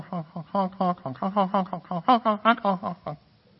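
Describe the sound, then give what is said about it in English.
A voice imitates geese honking as they fly overhead in the sky, about a dozen nasal honks in a quick, uneven rhythm, loud, before trailing off into quiet. “You know, this is a time of year, and early in the morning a lot, you step out, you're getting ready to go to work, or you're getting in your car, maybe you go out to your barn or wherever it is you go, and you hear something in the sky.”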